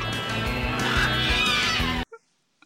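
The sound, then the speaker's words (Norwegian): A loud, harsh bird screech lasting about two seconds, raspy and strained with a wavering pitch, then an abrupt cut to near silence with a couple of faint, brief blips. “skriket du hører der, det var ikke et barn, Arild, som viste rumpehullet sitt. Det var en fugl.”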